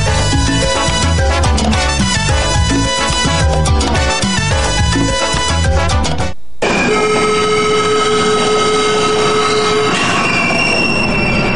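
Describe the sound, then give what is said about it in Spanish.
A Caracas Metro train rumbles past with loud, rhythmic rattling and clatter, then abruptly gives way to a sustained high-pitched squeal of wheels and motor whine, with no voices. “Estimado usuario, respeta las instalaciones y los materiales que el Metro de Caracas coloca a tu disposición.”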